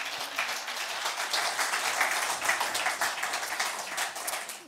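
Steady audience applause as a woman is invited onto the stage, a dense wash of many hands clapping at a fairly even level for several seconds, with no voices heard over it.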